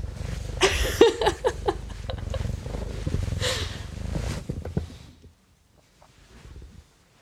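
A black male cat that sees very little purrs while walking over a sketch, a steady, rumbling low drone with scattered rustling bursts on top, lasting about five seconds before fading into near silence with a faint stir at the end.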